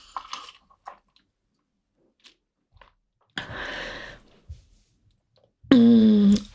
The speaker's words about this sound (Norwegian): Så jeg må ta meg en slurk vann eh, og skål for det.